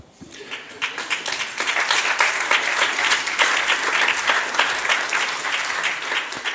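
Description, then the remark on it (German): A large audience applauds steadily at the end of an hour-long talk, many hands clapping in a dense, sustained wash that swells quickly and stays loud throughout, with no speech over it. “Also ich glaube, wir beiden hatten hier Spaß und wir erkennen jetzt am Applaus, wie viel Spaß die da unten hatten.”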